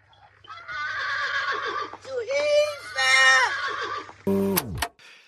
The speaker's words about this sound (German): Und dann noch ein anderes Geräusch, was äh, mich irritiert hat, ist, wenn das Pony immer mal durchdreht, dann hört man so ein Wiehern wie von einem richtigen Pferd.